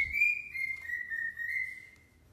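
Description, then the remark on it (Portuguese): A pet bird lets out a long, shrill, whistle-like screech, one steady high tone held for about two seconds, fairly loud, with no talking. “E meu passarinho tá começando a gritar.”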